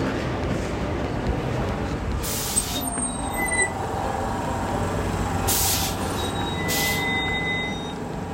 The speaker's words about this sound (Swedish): Men eh, nu ska vi se om jag kan hitta med, hinna med treans spårvagn hem.